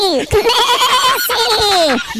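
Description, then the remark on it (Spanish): As the punchline of a joke, a person imitates a sheep answering who the best footballer in the world is. The two loud, drawn-out bleats have a shaky, quavering pitch and sound like the player's name, one right after the other. “Le preguntaron a la oveja cuál era el mejor jugador del mundo. ¿Qué dijo la oveja? Messi.”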